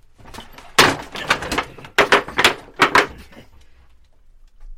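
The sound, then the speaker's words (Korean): A heavy storehouse door thuds shut, followed by a run of sharp wooden clunks and rattles as a wooden bar is set across it, fairly loud, then quiet. Guk Gyeong-in's men are locking Princes Imhae and Sunhwa and their attendants inside a storehouse within the fortress. “저들이 밖으로 나오지 못하도록 창구문을 닫고 빗장을 걸어라.”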